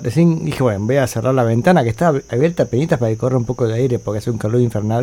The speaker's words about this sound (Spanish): Disculpen el ruido de fondo, ya les dije la semana pasada que son los grillos que están ahí a pleno.